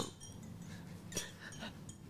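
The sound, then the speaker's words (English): Glasses clink together once in a toast, a brief bright chime over a low background hum, with soft clattering of dishes. “Cheers, à, cheers, one last cheers, cheers.”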